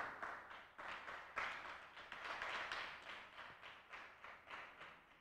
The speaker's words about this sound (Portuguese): Pode aplaudir o Senhor Jesus, de verdade mesmo?